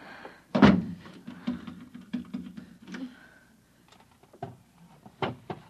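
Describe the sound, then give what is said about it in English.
A heavy wooden thump is followed by a few seconds of low scraping and rattling, then several sharp knocks and clicks, as a chair is shoved under a doorknob. “Shoving a chair under the doorknob.”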